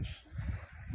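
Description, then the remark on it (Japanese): Low, rumbling gusts of wind buffet the microphone at a beach in Chatan, Okinawa, on a sunny, windy day of about 17°C, with broad hissy noise above, a steady outdoor roar that swells and dips over a brief moment, no voices present. “この放送中も風の音が入ってるかと思うんですが、風がありますが、日差しがあるので、割とあったかいです。”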